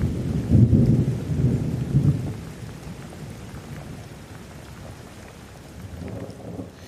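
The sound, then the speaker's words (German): A summer thunderstorm: a deep, heavy rumble of thunder rolls through the first two seconds, then fades into a steady hiss of rain that continues, with a softer low rumble near the end. “Das Sommergewitter zog von dannen”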